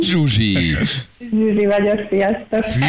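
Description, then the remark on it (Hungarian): A woman listener calling in to a morning radio game show speaks through a phone line with a hollow, echoey ring, saying a few short greeting phrases separated by brief pauses. “Olyan visszhangos.”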